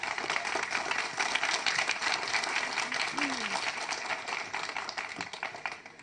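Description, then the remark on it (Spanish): An audience at a ceremony in Constitución applauds to welcome a woman presenting a project for a house advising local women, a dense crackling wash of many hands clapping at once that holds fairly even throughout, easing slightly toward the end, with no one speaking over it. “Le damos un fuerte aplauso y bienvenida,”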